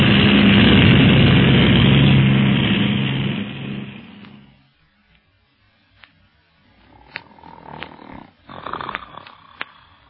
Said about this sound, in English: Now, this is one dawn Salute Papa Ricard won't sleep through. Hold tight, Carlos. We're going into a series of power dives.